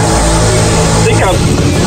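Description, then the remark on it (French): A voice imitates a scooter engine that sounds like a lawnmower, with a loud, continuous buzzing drone lasting about two seconds, its pitch briefly sweeping upward partway through like a revving motor. “C'est quand tes scooters ont le même son que ta tondeuse, on a changé le, on a changé le muffler après ce scooter-là.”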